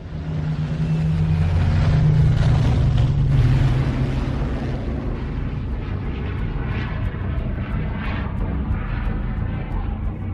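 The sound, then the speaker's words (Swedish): A Rolls-Royce Merlin aircraft engine roars past in a loud, continuous drone, its deep throbbing hum swelling over the first few seconds before settling into a steady, rushing growl with no voices. “Greatest plane ever built. And even look. Rolls-Royce Merlin engines.”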